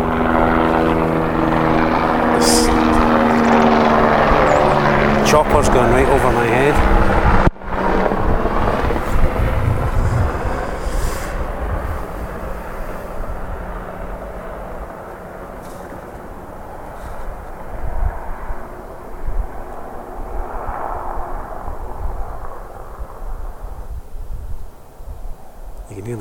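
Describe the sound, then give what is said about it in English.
A helicopter roars loudly overhead with a steady, throbbing drone above a loch near the mountain Ben Venue on a sunny day, then gradually fades as it moves off into the distance, leaving a faint lingering rumble. “chopper disappearing into the distance”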